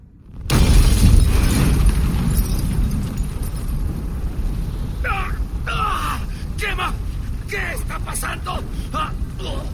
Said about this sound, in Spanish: Las bombas estallaron, consumiéndolos en llamas.